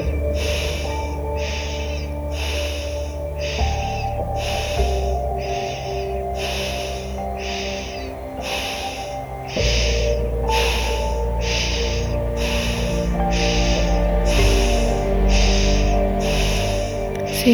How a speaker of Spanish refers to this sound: respirando en ritmo, sin pausa.